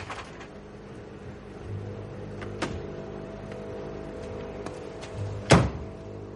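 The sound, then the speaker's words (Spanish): A car door shuts with a single loud, solid thunk near the end as a man gets out of the car at a wall to paint over graffiti, preceded by a low steady engine hum and a few faint clicks and rattles. No one speaks. “El hombre sale del coche y comienza a pintar en el muro para tapar el grafiti.”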